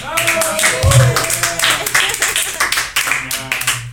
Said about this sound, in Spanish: quisiera mandar, quisiera mandar un, tos a la la ingeniera de audio que vino ilimitada, de invitada. Tenemos que darle otro aplauso.